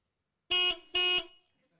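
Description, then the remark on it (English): A car horn gives two short, loud beeps in quick succession, each a steady, bright honk of equal length, with no talking around them. “We give a little beep beep.”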